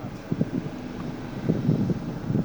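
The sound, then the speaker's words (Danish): Strong wind buffets the microphone in low, rumbling gusts that swell and fade over a couple of seconds, loud, with no voices, at a harbour where divers are launching a boat for a dive along the breakwaters. “Men det blæser virkelig meget heroppe.”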